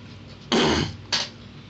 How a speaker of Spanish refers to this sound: Perdón. Tengo que toser porque llevo como un chingo de minutos que no tomo agua o no sé